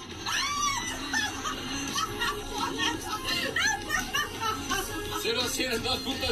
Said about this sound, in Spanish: escuchen nada más el audio de … y … gritando